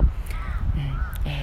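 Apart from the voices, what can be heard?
crow cawing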